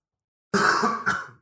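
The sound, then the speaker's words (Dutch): A loud cough or sneeze: one long harsh burst, then a quick shorter second burst, heard on its own with no talking. “Gezondheid.”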